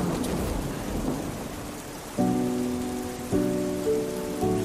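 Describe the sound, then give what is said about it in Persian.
A thunderstorm with lightning, steady rain and low rolling thunder fills the first couple of seconds, then sustained musical chords enter in three swells over the storm noise. No one speaks. “هموطنانم مدتی است گرفتار رعد و برق و سابق”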